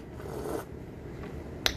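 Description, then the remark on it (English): A soft slurping sip of hot tea sweetened with honey, lasting about half a second, then a faint hush and a tiny click near the end, like a cup being set down. No one speaks. “sip on that tea.”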